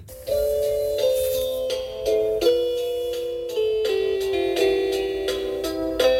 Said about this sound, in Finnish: Ja sit hän on ihan ottanut kuvaa tästä ovikellosta ja videolta olen ottanut tämän nyt tämän äänen. Eli tämä on heidän ovikellonsa ääni.